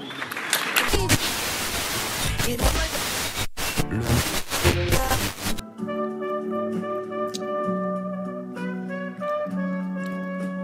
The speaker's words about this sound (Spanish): Así que, por favor, recibamos un fuerte aplauso al jefe del gobierno de la Ciudad de México, el doctor Miguel Ángel Marcela.